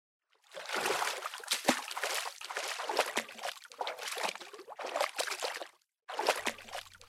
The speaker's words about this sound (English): I wade into the water, carefully cutting a path through the egg wrack floating on the surface.